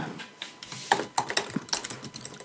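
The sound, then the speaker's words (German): Rapid, uneven clacking of keys on a loud computer keyboard, clear, with sharp percussive taps in quick bursts and no talking. “Da müsste man jetzt googeln, aber wenn ich google, dann, dann haue ich meine tolle Tastatur so den Hörern um die Ohren mit den Tasten.”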